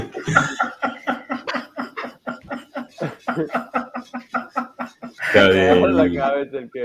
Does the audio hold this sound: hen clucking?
yes